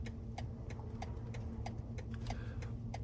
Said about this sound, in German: Ausparken starten. Da wollte er schon los. Er setzt den Blinker.